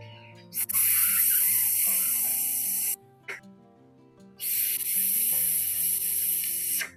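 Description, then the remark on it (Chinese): A voice imitates a colleague's breast pump expressing milk in an office: two long, loud hissing spray sounds over a low hum, with a short hiss between them. “嗯， 我的同事挤奶是这种声音。”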